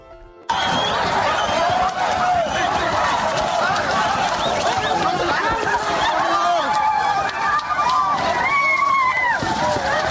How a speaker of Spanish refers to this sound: el jueves pasado cientos de personas rompieron el cerco policíaco y militar establecido en la frontera con Guatemala y en estampida literalmente lograron entrar corriendo a ese país en la zona de Corinto.